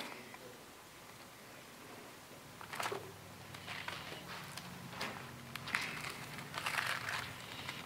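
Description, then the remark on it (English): Soft papery rustling and a few crisp flicks as thin pages of a paper Bible are turned, fairly quiet, with no talking over it. “I'm using paper Bible today.”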